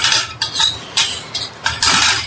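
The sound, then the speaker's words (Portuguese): A plate is handled at dinner by someone playing with their food, with clinking and scraping, several short bright clatters of dishware and cutlery in quick irregular bursts, fairly loud, with no talking. “Se não vai comer, pare de brincar com a comida. Me dá o um prato.”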